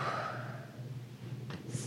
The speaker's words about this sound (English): Quit breathing in the mic.